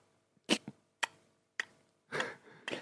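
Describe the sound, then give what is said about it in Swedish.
A voice imitates a ticking clock with about five sharp mouth clicks spaced roughly half a second apart, a steady tick-tock rhythm with nothing else around it. “Jag skulle inte vilja vakna upp i din lägenhet lördag morgon och bara hör, man hör typ så här, man hör en klocka”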